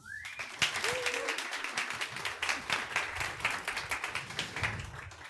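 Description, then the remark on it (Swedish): Steady applause from an audience, many hands clapping in a dense, continuous patter that holds at an even level for several seconds, with no talking over it. “En varm applåd!”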